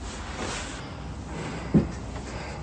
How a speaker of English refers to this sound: Doors open, doors open.